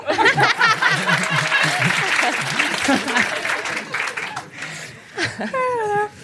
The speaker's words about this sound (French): J'aime bien ce truc de par applaudissement.